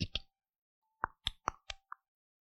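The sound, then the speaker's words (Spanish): A cork being pulled from a red wine bottle: a series of short, hollow pops, two quick ones, a pause, then five more in a steady row, fairly loud with no talking. “Cuando le sacas el corcho, pone el cronómetro.”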